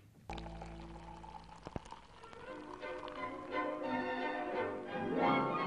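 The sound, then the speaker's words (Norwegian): Beer pours steadily into a glass, a continuous gurgling stream that rises in pitch as the glass fills, fairly loud with a faint sustained tone underneath. “Øl hører til. Øl er godt. Den naturlige forfriskning.”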